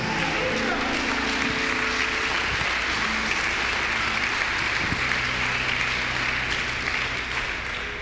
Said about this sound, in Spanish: A ver, eso merece un mejor aplauso.